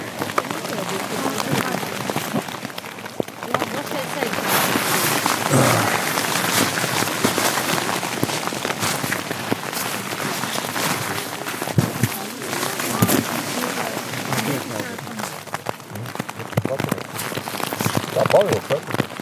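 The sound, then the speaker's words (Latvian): Steady rain patters densely on a surface during a pilgrimage, a continuous crackling hiss with scattered sharper drops, fairly loud throughout, with faint voices occasionally audible beneath it. “Ok, neliela lietus pauze klausītāji.”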